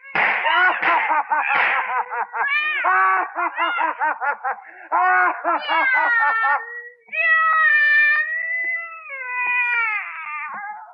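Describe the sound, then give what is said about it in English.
A cat yowls and meows loudly and continuously, its drawn-out wavering cries rising and falling in pitch with only brief pauses between them. “Press, claw, what does it matter? You cursed animal.”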